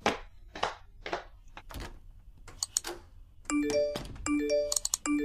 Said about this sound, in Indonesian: Ih berisik banget sih notifnya